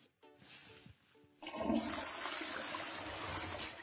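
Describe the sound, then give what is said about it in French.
A toilet flushes away the leftover of a home test sample, a sudden loud rush of water surging in after a short quieter lead-in, then a steady roaring swirl that carries on to the end. “Tout le reste se jette dans les toilettes.”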